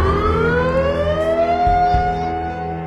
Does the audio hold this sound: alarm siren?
yes